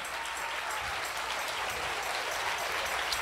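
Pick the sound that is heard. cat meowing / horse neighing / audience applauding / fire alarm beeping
audience applauding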